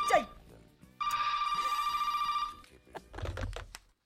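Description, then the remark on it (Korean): A telephone in a hotel guest room rings with a steady, clear electronic trill for about a second and a half, a call from the parents, followed by brief rustling and muffled movement; no one speaks clearly. “아니, 분위기만 잡았다면 전화가 계속 아, 올려오는데 제가 뭘할 뭐 수가 있어야죠.”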